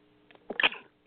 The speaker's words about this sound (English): excuse me. God bless you.